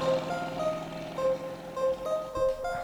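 An engine runs steadily, a continuous droning hum with a whining tonal edge that wavers slightly in pitch. It is moderately loud, with a brief thump near the end and no talking.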